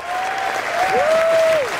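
A crowd packed into a small radio station claps steadily in a dense, continuous wash of applause, while a sustained whistle rises and glides across the noise near the end.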